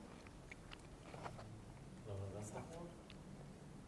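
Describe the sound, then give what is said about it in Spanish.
Moist chewing of a tangerine with scattered crisp bites and clicks, irregular over a few seconds, while a voice murmurs faintly underneath partway through. “el oído, estás exactamente, estás escuchando el masticar.”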